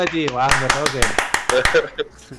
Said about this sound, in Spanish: ¡Vamos, grande! vamos! ¡Aplauso! Otra vez.